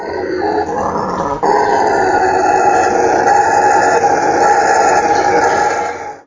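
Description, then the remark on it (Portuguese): A jaguar's deep, raspy roaring grunts, loud, rolling almost continuously for several seconds after a brief catch near the start, with no voices. “E além disso, é, os, o, as presas dessa, dessa, dessa onça ficam muito é, perceptivas a esse som para fugir dele também, né?”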